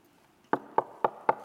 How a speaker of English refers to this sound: there's a knock at the door. And there they are two Mormons and two, or two Jehovah's Witnesses